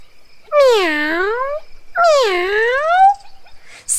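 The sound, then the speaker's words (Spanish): Two angry cat-like meows, long drawn-out wails with a falling-then-rising pitch, loud, with a short pause between them and no talking. “Entonces, atraída por la discusión, llegó la avispa, que maullaba como gato y muy enojada amenazó.”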